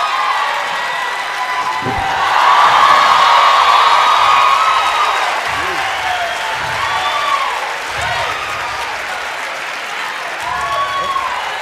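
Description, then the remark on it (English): A crowd applauds and cheers steadily for Mike Todd, a dense wash of clapping with rising whoops and shouted voices that swell loudest early on, then continue at a lively level throughout. “The crowd loves it.”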